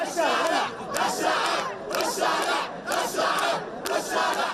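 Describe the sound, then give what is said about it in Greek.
A large crowd of protesters outside the Israeli embassy in Jordan, holding Palestinian flags, chants pro-Palestinian slogans in loud, rhythmic unison, the shouted phrases repeating in regular bursts about once a second with a dense roar of voices throughout. “Στην Ιορδανία, διαδηλωτέ έχουν συγκεντρωθεί έξω από την πρεσβεία του Ισραήλ κρατώντα σημαίε τη Παλαιστίνη και φωνάζουν συρθήματα υπέρ των Παλαιστινίων.”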